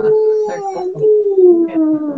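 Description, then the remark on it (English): A person imitates whale song with a long, sustained hooting call that wavers and slowly sinks in pitch, sung loud for about two seconds. “But in this situation, whales communicate long distances through their singing. You know, woo, woo, yeah,”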